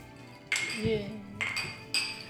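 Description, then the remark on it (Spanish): Three bright glass clinks ring out in close succession, each leaving a short shimmering tone, as drinking glasses are touched together in a toast, with a brief murmur of voices underneath. “Salud. Salud. Salud, amigos.”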